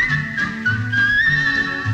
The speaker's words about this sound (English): Just whistle while you work